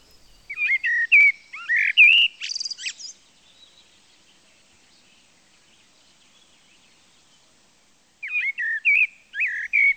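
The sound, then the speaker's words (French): A blackbird sings clear, fluty phrases, ending in a higher twitter. After a few seconds of silence, another phrase begins. No one speaks. “le merle avait commencé à chanter.”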